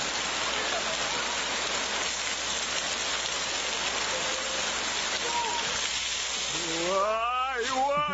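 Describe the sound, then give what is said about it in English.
Steady, loud rushing of flowing river water fills the whole recording, a dense hiss with no break, and near the end a person's excited voice rises over it. “And this next clip will show you what happens to the sand when the rivers are flowing.”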